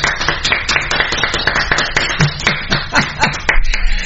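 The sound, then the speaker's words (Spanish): Steady clapping from a group of people applauding the sponsor Molten during the Pasión Pentarroja show, a dense run of sharp claps with no talking over it. “Todos tienen aplaudir a Molten”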